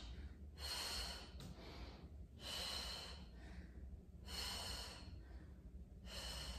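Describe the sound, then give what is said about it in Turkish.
Heavy, rhythmic breaths in and out, fairly loud, coming in a steady cycle about every two seconds, like someone pacing their breathing during exercise. No talking. “Topuğun kalçaya gelecek şekilde yarım pozisyonda çok böyle vurarak değil daha böyle nefes al önde ver al nefes ver al kolları iki yana aç”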